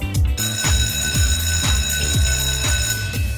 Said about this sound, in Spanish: Suena el timbre, parten las clases